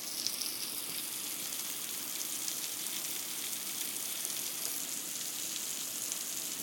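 Steady heavy rain pours down outdoors, a dense, even hiss of countless drops hitting surfaces, loud and continuous throughout with no voices.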